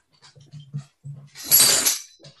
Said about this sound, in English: That's my dog.